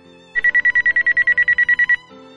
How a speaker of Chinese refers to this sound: 哎，怎么回事？我的手表怎么响了？